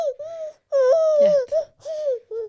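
A baby cries while being breastfed, in about five high-pitched, wavering wails, each lasting a fraction of a second to half a second, separated by short breaths. The crying is fairly loud, and no one speaks.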